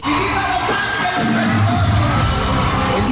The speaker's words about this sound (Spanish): fue recibido con una eufórica ovación del público angelino.